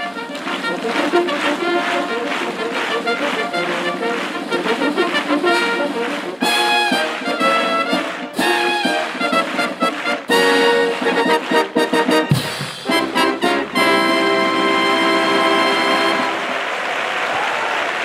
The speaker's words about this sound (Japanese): 陸上自衛隊第3音楽隊もうスタンバイ OK 生のファンファーレ演奏する準備ができました